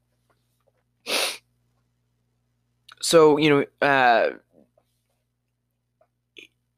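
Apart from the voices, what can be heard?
hiccups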